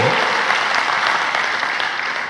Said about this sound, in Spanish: Así que dése un aplauso.